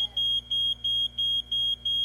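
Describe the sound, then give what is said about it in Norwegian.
A fire alarm going off in a lodging house blares in a rapid, steady pattern of loud, shrill beeps with short gaps between them, repeating about every third of a second with no voices present. “Og dette funket så bare faen helt til brannalarmen gikk.”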